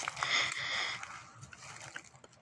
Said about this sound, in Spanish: Tercero, ¿cuál fue el sonido más cercano que escuché? El agua.